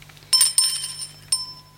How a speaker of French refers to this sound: une fois que tu entendras la cloche sonner, tourne la page.